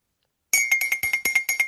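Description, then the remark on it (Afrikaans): A teaspoon clinks rapidly against a cup, about nine bright ringing taps in quick, fairly even succession, clear with no talking. “want dit klink nou net soos hy selfde lepeltjie”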